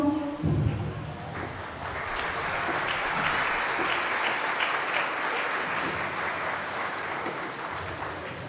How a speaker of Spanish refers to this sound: Muy bien, muy bonita representación. Un aplauso, se lo merecen.